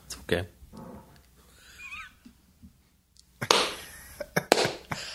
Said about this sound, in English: I hope that registered. I hope it didn't. that was hilarious. That sounded that's like a fart from a walkie-talkie.